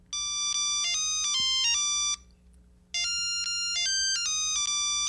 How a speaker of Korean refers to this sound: 갑자기 제 휴대폰이 울리는 거였습니다.